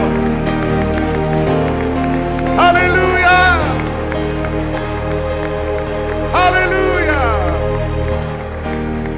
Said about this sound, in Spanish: Dale tu mejor ovación. Dale tu mejor aplauso.